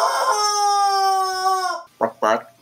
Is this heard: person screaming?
no